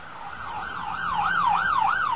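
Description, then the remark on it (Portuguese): A police patrol car's siren wails in fast rising-and-falling sweeps as the car suddenly appears at a street corner, growing slightly louder, with no voices over it. “Uma viatura policial que surgira de repente na esquina percebeu o que estava acontecendo e veio em socorro do motorista.”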